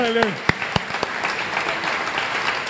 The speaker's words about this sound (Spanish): Aquí está su hija, me gustaría dar un aplauso.